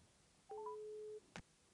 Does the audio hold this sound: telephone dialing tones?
yes